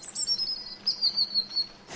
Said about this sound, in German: Also wenn ich jetzt sage, ich möchte das da hinten hören, da hinten ist ein Vogel auf dem Baum, kann ich quasi akustisch mit meinem Ohr genau neben seinen Schnabel reisen und höre dieses Zwitschern ganz, ganz laut.